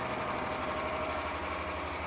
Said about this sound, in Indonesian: Suara mesin penyamakan sudah mulai terdengar.